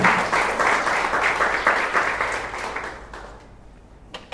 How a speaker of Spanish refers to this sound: Den un aplauso al Señor si lo creen.